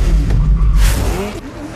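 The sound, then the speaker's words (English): A loud modified rally car engine, in a 1965 Ford Mustang putting out more than 800 horsepower, roars and revs, its deep rumbling tone rising and falling with a brief rushing whoosh midway through. “of a 1965 Ford Mustang, putting out more than 800 horsepower, modified beyond recognition, and dubbed the Hoonicorn.”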